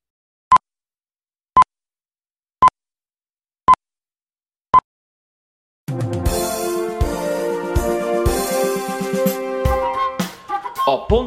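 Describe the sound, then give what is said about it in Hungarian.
Five short, clear radio time-signal pips sound exactly one second apart against silence, then a loud burst of full music kicks in right after the last beep. “pontos idő, mindig pontos.”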